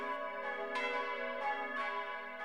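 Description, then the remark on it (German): Three bronze bells from 1961, pitched Gis, H and Sis, ring out the midday peal from the belfry of a modern church in Greinau: several overlapping strikes arriving every half second or so over a steady, shimmering wash of sustained metallic tones, with no voices. “Das Mittagsläuten aus Greinau”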